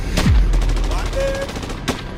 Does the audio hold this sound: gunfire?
yes